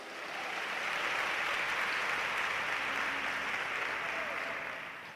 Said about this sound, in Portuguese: Pode dar um salva de palmas para Jesus?